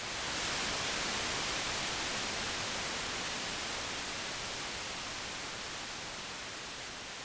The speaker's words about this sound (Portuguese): E se você acha que influenciador não faz nada, eu quero ver o que você vai pensar dos produtores de podcast com ruído branco. Aquele som que oscila frequências para mascarar outras frequências que estejam incomodando,